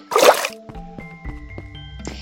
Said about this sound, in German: So, so kommt man natürlich auch hier lang. Also wenn man den Wasserfall schwimmt.